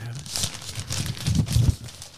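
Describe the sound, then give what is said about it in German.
Paper crinkles and rustles as a gift covered with a sandwich bag is unwrapped, revealing a glass; a continuous crackly texture with sharper tearing bursts, moderately loud, with faint low voice-like murmurs underneath. “Mal ein bisschen auspack ASMR.”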